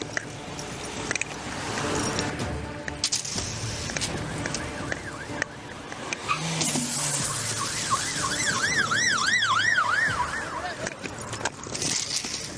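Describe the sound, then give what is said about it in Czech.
A police siren wails in rising and falling sweeps, loudest in the second half, over rumbling engine and road noise from fast-moving vehicles, as police chase a fleeing car that keeps driving from Litomyšl on two punctured front tires. “I přes obě proražené přední pneumatiky jízda nekončí.”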